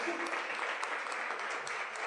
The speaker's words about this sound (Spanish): Así que eh, quiero, quiero que les reconozcan. Un, aplauso para los jóvenes.